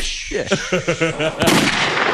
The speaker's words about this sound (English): Like the gun that is shot sounds like it's shot in the Grand Canyon. Right? Like There's a big house, man. someone who shoots themselves is not gonna sound like that.